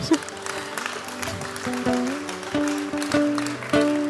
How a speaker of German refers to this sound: Ja, dafür kann man klatschen.